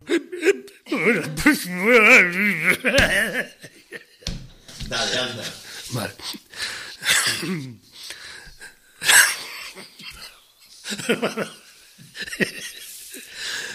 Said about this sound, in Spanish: que va a proferirnos un sonoro estornudo.